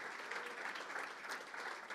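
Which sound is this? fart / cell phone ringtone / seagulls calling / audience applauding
audience applauding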